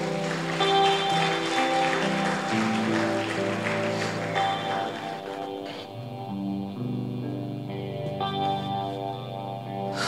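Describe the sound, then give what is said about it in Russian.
An audience claps steadily for several seconds for the worship team over sustained, effect-laden keyboard chords, and the clapping fades out partway through while the music continues. “Прославление, идите, дайте им аплодисменты, да.”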